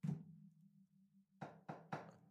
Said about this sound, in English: That's me knocking on wood because y'all remember the road to YouTube.